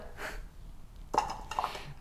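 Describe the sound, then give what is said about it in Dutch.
Kitchen clatter: a soft rustle, then two crisp clinks as rice from a sieve is put into a small ceramic bowl, as if spooned in, with quiet breathing and no talking. “Maar ik wilde hem eigenlijk in een kommetje doen. Oh, ik doe het gewoon in een kommetje.”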